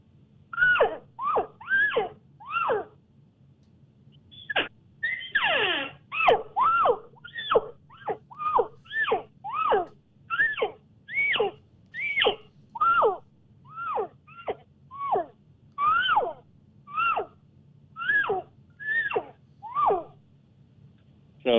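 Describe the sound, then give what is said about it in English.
A rapid string of nasal, rising-and-falling cow elk calls, blown in and out of a tube and on an external reed call to imitate a group of seven or eight cows assembling. Over twenty calls come in quick succession, loud, with one raspier squeal mixed in and no talking. “I'm going to mix in maybe an external reed call as well. I'm going to call in my tube and out of my tube.”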